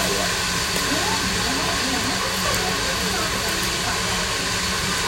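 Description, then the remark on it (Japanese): Meat sizzles loudly on a yakiniku grill at a birthday meal, a dense, steady crackling hiss that fills the whole stretch, with faint voices murmuring beneath it. “今日は焼肉、あー、いいな。”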